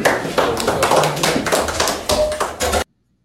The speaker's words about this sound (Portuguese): Sabe o que foi isso aí? Os diretores de futebol aplaudindo Elano numa apresentação comum.